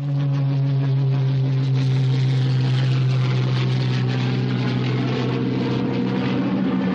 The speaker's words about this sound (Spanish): Una avioneta los sobrevuela.